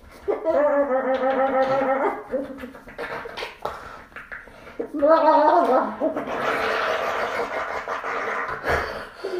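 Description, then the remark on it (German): A pet animal grunts in two warbling, gurgly bursts, followed by a longer stretch of rough, breathy grunting noise. “Ah ja, sie grunzt ein bisschen, aber.”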